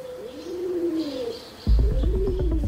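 A pigeon coos in low, throaty, rolling phrases, steady, and partway through a dull low rumble of noise joins beneath the cooing.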